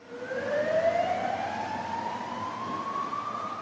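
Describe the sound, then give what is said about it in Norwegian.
An ambulance siren wails steadily, its tone sliding slowly upward over a dense wash of street noise and traffic rumble, loud throughout, as ambulances shuttle between Once train station and hospitals in the Argentine capital after a commuter train accident. “Store deler av gårsdagen gikk ambulansene i skytteltrafikk mellom togstasjonen Once og en rekke sykehus rundt om i den argentinske hovedstaden.”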